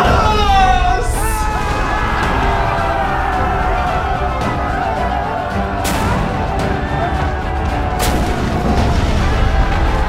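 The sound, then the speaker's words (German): Cannon fire from a pirate ship: a few heavy booms, roughly three, crack out over a constant loud rumble of battle noise, powerful throughout. “hissen die Flagge, ladet Kanonen, setzen setzt Kurs!”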